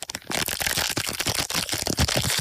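Continuous crinkling and crackling of a fortune cookie's plastic wrapper being torn open, with rapid sharp rustles for a couple of seconds and no voices.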